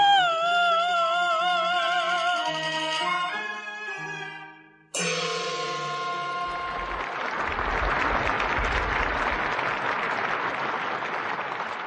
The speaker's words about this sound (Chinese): 观众承认了春来，掌声和喝彩声就是最好的证明。